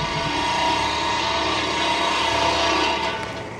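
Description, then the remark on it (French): A loud, steady mechanical whine of power tools cutting down trees during logging, running continuously for a few seconds before easing off slightly at the end. “À chaque arbre qui tombe, c'est mon peuple qui pleure.”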